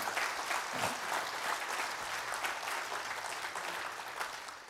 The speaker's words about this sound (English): So let's just, if you would, just give the Lord a, a hand clap of praise for what He has done.